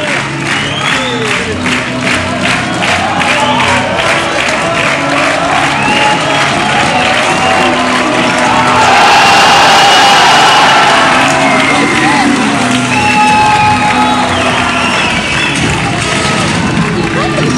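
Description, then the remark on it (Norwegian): A large cinema audience shouts and cheers together as a rabbit appears on screen, a traditional shout, a dense roar of many voices that swells to its loudest midway before easing back into a lively, echoing babble. “De bare er med og roper når kaninen kommer.”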